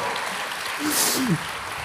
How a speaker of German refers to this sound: Aber das war großartig. Applaus für den Herrn Dottore.